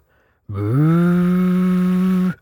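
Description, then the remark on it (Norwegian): A voice imitates blowing across a shotgun barrel: one loud, sustained, hollow drone with a slightly rising start, held steady for nearly two seconds before cutting off, heard alone. “Og da sto fatter'n og blåste i haglpipa.”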